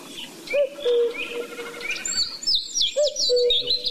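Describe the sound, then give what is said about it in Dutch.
A common cuckoo calls its two-note 'cuckoo' twice, clear, over a busy background of small songbirds chirping and twittering. “Ja hoor, dat is een koekoek.”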